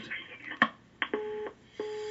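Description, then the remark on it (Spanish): A cellphone call clicks sharply a couple of times as it is answered, then gives two short, steady electronic tones as it cuts off, fairly faint and with no one speaking. “Sí, contesta y, cuelga. Contesta una energía y se, corta.”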